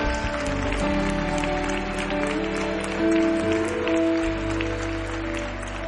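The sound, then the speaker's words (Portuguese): A crowd applauds the brothers present, clapping steadily for several seconds, dense rapid applause filling the whole clip, with sustained musical tones playing underneath. “Eu quero que você aplaude esses irmãos que estão aqui, porque eles são corajosos.”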